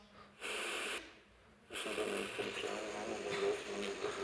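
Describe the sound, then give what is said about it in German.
Hissing static from a radio being tuned with buttons, with a short burst of white noise, a brief dip, then a steadier rush of static carrying faint, wavering tones and muffled, garbled fragments. “Ist noch so ein leichtes Grundrauschen da?”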